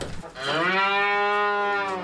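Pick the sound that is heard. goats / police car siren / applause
goats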